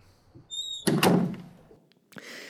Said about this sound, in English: Having some issues with the door again. You have to pull. No, you're on this side, you have to pull. You already had to push on the other side.